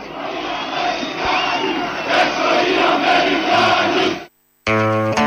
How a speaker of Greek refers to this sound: Εδώ είναι όλη η πλατεία ελευθερία στη Λάρισα που φωνάζει έξω οι Αμερικάνοι, έξω οι Αμερικάνοι.